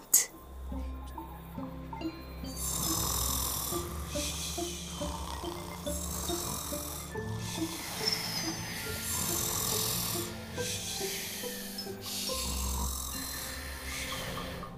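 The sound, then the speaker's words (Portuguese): Repeated snores in a steady rhythm, several breathy rasping bursts roughly every second and a half, likely voices imitating ten sleepers in one bed (a hedgehog, mouse, elephant, zebra, teddy bear, boy, rabbit, crocodile, bear and sheep), over a soft tune playing underneath throughout. “Estão dez numa cama a dormir profundamente.”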